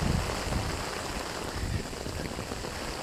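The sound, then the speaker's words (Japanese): A sudden, extremely heavy rain shower pours down in a steady, dense hiss that fills the whole three seconds, with a slightly louder low rumble at the start and no voices. “嫌がらせみたいにとんでもなく強い雨が降ってきました最近梅雨は明けたんですけどこのにわか雨が多くって”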